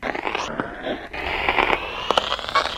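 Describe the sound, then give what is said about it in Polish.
Steady crackling interference hisses and pops across a line, with scattered sharp clicks and a thin whine running through it, fairly loud and continuous for the whole stretch. “Dobra, już, już powinno być lepiej, bo Y, straszne zakłócenia były.”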